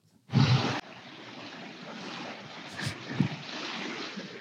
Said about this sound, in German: Ich weiß nicht, ob man das im Hintergrund hören kann, aber ich liege gerade am Meer weil ich bin ja im Urlaub, wie du, wie du weißt.